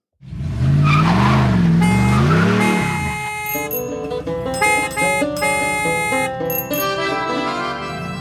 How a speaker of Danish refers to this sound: lige inden vi går videre, tryk mm. lige på trafikjinglen. Trafikjinglen? Ja, hvis du har den derovre.